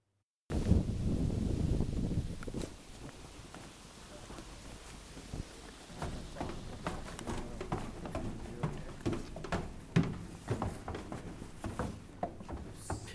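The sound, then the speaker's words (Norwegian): Outdoor rain and wind in the Netherlands as people walk through it, with a heavy low rumble of wind buffeting early on, then a steady wash of rain broken by irregular taps and patters. No one speaks. “De går gjennom det nederlandske regnet”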